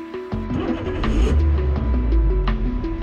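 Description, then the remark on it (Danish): A car engine sputters and labors as the car stalls, its low rumble wavering unevenly as if struggling to keep running, with no voices present. “En podcast om det der irriterende øjeblik, hvor din bil går ud.”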